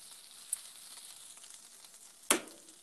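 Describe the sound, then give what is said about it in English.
Vegetables sizzle steadily in a hot frying pan, a dense high crackle throughout, with a small click early on and a sharp clatter near the end, like a utensil striking the pan. “the vegetables are basically done on the pan”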